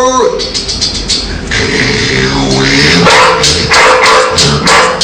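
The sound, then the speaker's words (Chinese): A man's voice imitates a dog, letting out a loud run of barks and yips with whiny, rising and falling pitch, repeated in uneven bursts over about five seconds. “我看你的这片让狗给吃了，我的这片让野狗吃吧。”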